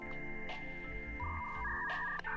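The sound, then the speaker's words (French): A short electronic jingle of dial-up modem tones: steady beeping pitches that shift and overlap with bursts of static-like hiss, fairly loud, with no voices. “Ça fait une petite musique de modem.”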